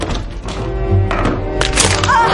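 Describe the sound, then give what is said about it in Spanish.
Heavy wooden thunks and knocks as a girl shuts herself in her room and bars the door with a stick, fairly loud, with scraping and rattling between the blows. “Se cierra en su cuarto y atranca la puerta con el palo.”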